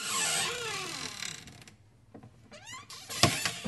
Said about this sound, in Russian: Дверь и открылась